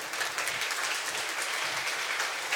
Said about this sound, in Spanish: Gracias a todos mi staff, de verdad, un aplauso.